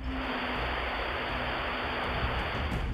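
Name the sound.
white noise static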